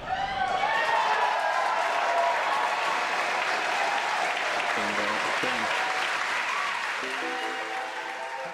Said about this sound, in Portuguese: Esses aplausos que você está ouvindo são do time da SpaceX, comemorando o lançamento da Inspiration 4, uma missão que mandou uma tripulação só de civis para o espaço, pela primeira vez na história.